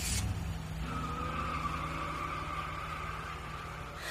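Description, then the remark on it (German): A car engine roars loudly on a street while tires screech in a long, continuous squeal lasting several seconds, intense, with the engine's low rumble underneath throughout, as the car pulls away. “hört sie hinter sich einen Motor aufheulen.”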